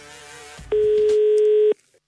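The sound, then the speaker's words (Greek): A single steady telephone tone, from a phone call to the Maximos Mansion in Greece, sounds for about one second, loud and clean, after a brief stretch of background hum and a faint click, then cuts off abruptly. “Τώρα έχουμε κάτι πιο συγκεκριμένο. Πήραμε τηλέφωνο στο Μέγαρο Μαξιμού”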